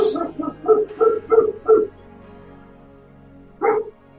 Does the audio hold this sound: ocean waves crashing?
no